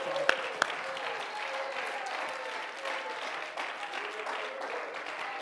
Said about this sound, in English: Come on, clap your hands, all you people. Shout with a voice.